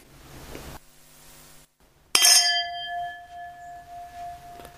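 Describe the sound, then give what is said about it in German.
A single bright clink of glasses touching in a toast, sharp, with a clear ringing tone that lingers and slowly fades. No one speaks. “Prost. Auf die Verjährung.”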